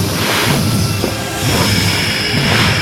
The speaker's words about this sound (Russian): Потом, как извержение вулкана, шипят огромные меха легких.